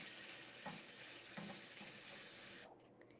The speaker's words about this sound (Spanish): Escucho a mi mamá cocinando.